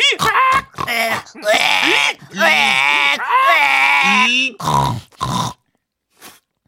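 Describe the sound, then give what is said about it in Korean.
A voice imitates a pig in a pigsty, startled when a lamp fell to the floor, letting out a run of loud, strained squeals and grunts in several bursts, harsh, then a short faint tail before silence. “매달아뒀던 그 등이 돈사 바닥으로 꽁 떨어져 버렸고 위위위 바로 옆에 있던 돼지 한 마리가 놀라 날뛰더니 꽥”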